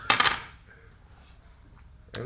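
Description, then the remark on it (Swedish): Five dice, rolled for a pilot roll in a tabletop game, clatter and rattle across a tabletop in a quick burst, then settle into quiet before another brief clack near the end. “Då får du slå ett pilotslag här. Ja, eh, med fem tärningar.”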